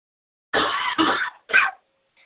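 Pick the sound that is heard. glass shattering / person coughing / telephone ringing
person coughing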